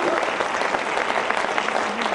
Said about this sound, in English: You say, man, are we going to clap the whole time? Yeah, we are, man. we want to clap.